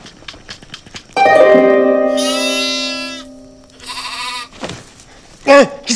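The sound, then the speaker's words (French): A billy goat lets out a long, loud, wavering bleat with a quavering tone, then a second shorter bleat follows, with a few brief sharp sounds at the end. “si c'est pour dormir avec des boucs, effectivement, j'aurais mieux fait de rester chez moi”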